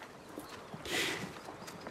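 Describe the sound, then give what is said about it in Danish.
Horse hooves clip-clop in a steady walking rhythm, a handful of hollow knocks over a soft, noisy outdoor background, with no one speaking. “Jeg er ikke specielt glad for heste.”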